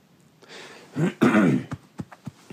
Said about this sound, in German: Es tut mir leid, so, schneide ich nicht raus. Das ist ein, ein, ein Family-Podcast, da darf man auch mal husten.